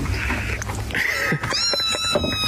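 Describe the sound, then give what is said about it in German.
Six kittens meow in high, thin, overlapping cries, one drawn-out mew rising above the rest, fairly loud against a steady background hiss. “Wer lässt seine Katzen da reinkrabbeln, verdammte Axt?”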